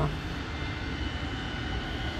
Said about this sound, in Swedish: Planet måste ständigt befinna sig startklart och motorerna hållas gående, kräver kaparen. Men det öronbedövande oljudet gör det minsann inte lätt för honom att tala med hustrun som hämtats till flygplatsen